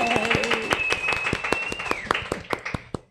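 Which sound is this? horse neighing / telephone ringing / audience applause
audience applause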